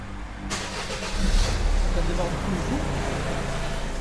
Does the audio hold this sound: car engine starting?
yes